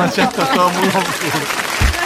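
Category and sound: crowd, applause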